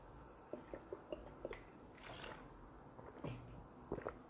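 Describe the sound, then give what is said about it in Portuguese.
Someone drinks water from a small water bottle during a live stream: a series of soft, quick gulps and wet swallowing clicks in an uneven rhythm, fairly quiet, with no talking. “Eu tenho que tomar uma água de vez em quando, gente, porque a minha voz começa.”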